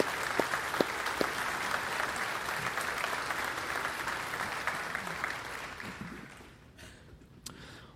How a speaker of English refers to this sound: All right, can we just give them a round of applause as we send them off to encourage them?